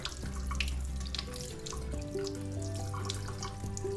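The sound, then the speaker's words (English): Tap water runs steadily into a sink in a restroom as someone washes their face and feels the water on their fingers, a continuous splashing with a shifting hollow ring as the basin fills. No one speaks. “Now turn on the water and feel the water running through the finger.”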